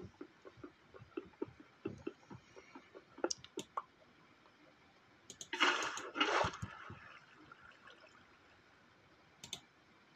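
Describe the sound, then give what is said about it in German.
Water is poured onto lava: scattered soft clicks and taps lead into a sudden loud hissing rush of water, in two quick surges that sizzle and fade, followed by quiet and one last faint click. “Digga, das dauert ja so zehn Jahre oder Lava. Ich gieße den lieben Herren mal gleich weg.”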